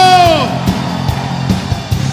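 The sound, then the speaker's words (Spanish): A loud, sustained shout of joy from a single audience member glides downward and fades within half a second, followed by a steady background hum with faint crowd noise and soft thuds. “Alguien puede dar un grito de júbilo.”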